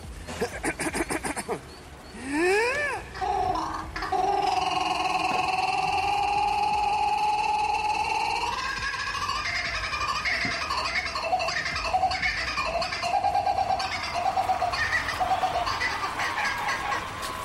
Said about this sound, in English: And the kookaburra has a song that sounds a lot like a laugh. It goes a little something like this.